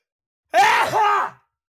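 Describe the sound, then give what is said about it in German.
A single loud, voiced sneeze in two quick parts, a rising tone that dips and then a second strained burst, heard alone with no talking around it. “Gesundheit. Sorry. Gesundheit.”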